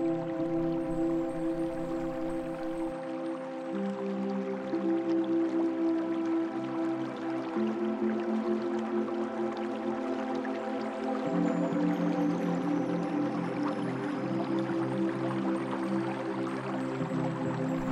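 A babbling stream flows steadily for the whole stretch, its continuous trickling and dripping texture blending with a soft, sustained musical drone underneath. No voices.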